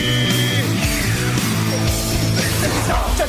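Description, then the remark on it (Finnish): A loud rap-metal track plays, with heavy, distorted low riffs shifting between notes, pounding drum hits and a dense, constant wall of sound throughout. “tekee jonkinnäköistä menestys rap-metallia. Se kuulostaa tältä.”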